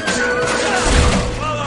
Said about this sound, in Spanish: Otro se sube sobre una mesa y patea todos los objetos.